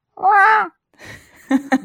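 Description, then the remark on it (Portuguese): A person imitates the meow that Bibi, a pet cat, makes when hungry: one drawn-out, wavering, whiny cry, followed by softer breathy noise and two short voiced bursts. “imitando o miado de gato”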